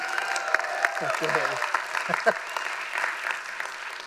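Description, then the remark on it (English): A church audience clapping steadily in praise of God, a dense wash of applause with scattered cheers and voices calling out over it, sustained throughout. “Give God a hand of praise for that.”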